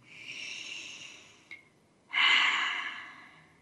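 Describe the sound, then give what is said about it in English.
A slow, deep breath drawn in, a brief pause, then a fuller, louder breath out. No one speaks. “Let's breathe that in as a community.”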